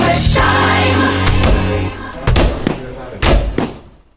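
Several sharp, loud slaps of a hand on a table ring out, spaced irregularly over a sustained music-like backing that fades out toward the end.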